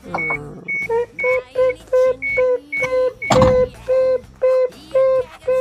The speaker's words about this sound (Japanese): これは何ですかピーピーは車の音でしょう